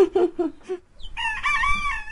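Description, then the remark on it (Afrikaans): Chickens cluck in a quick run of four low, rhythmic notes, then a brief pause before a loud, drawn-out, raspy cackle rings out for the rest of the moment. “It's the communicating of I'm wanting to lay an egg or with all the cackling when I've laid an egg.”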